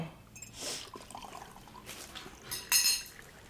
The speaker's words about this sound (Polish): dolej mi wody, syniu, Proszę cię.